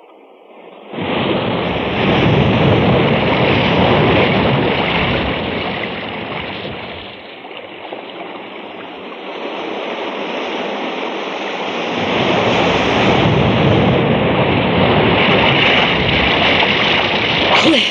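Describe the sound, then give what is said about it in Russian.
Loud, steady roar of sea surf and wind along a shore, with a heavy wave wash that eases for a few seconds midway before surging back strongly. No voices. “Ну и выбрали же вы себе дорожку для размышлений. В это время к морю только топиться ходит.”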